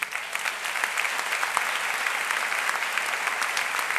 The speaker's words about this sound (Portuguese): Aliás, eu queria que a igreja, mesmo que você não conhecesse agora, agradecesse essa galera, dá uma salva de palmas para eles.